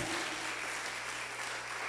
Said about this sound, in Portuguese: Dê um aplauso ao que reina. Aleluia! Aleluia!